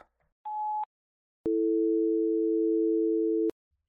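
An answering machine beep: a short, bright high-pitched tone, then after a brief pause a longer, loud, steady lower tone holding for about two seconds before cutting off. No voices.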